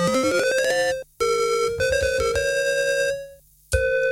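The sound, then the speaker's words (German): A bright, buzzy FM synthesizer tone rich in harmonics, using a sawtooth carrier waveform, its pitch and timbre shifting in steps as the frequency ratio is changed, starting with a rising sweep, briefly cutting out twice, then resuming steady and loud with no voices. “Sägezahn und das wird automatisch noch obertonreicher, wenn ich jetzt hier die, die Ratio nochmal verändere.”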